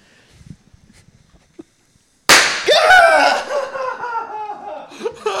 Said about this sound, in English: I like went to plug my ears, but didn't plug my ears till after it exploded